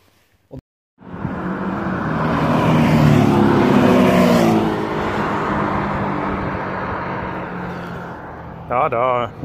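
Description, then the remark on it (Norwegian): Porsche cars roar past on a race track during a Porsche driving session, a broad engine rumble swelling over several seconds and slowly fading, followed by a brief burst of someone speaking at the end. “hører vi at eh, Porsche-kjøringa er i gang.”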